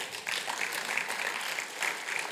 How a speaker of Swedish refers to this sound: Och jag är så glad för, för någon vecka sedan så var jag nere i eh, en måndag i kyrkan och träffade en grupp av våra hjältar som kallar sig för missionsgruppen. Alltså vilka underbara människor. Ja, ni får applådera åt dem.